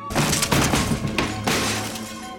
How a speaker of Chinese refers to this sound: 第二次总算得手，窗户被砸破了